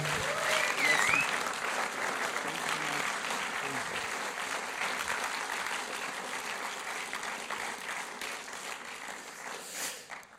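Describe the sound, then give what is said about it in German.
Sustained applause from a crowd, a dense steady wash of many hands clapping for about ten seconds, with a few faint whistles early on and the clapping tapering off at the end. The applause honours Jesus and thanks a guest for openly telling his story. “ich würde gerne zum Schluss Applaus dir einen äh, Dankesapplaus geben”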